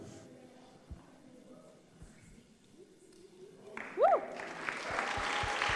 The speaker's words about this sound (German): Also wenn ihr mitarbeitet in der Gemeinde, steht doch kurz auf, damit wir euch einen Applaus geben können. Anyone who serves in the church, just stand up now.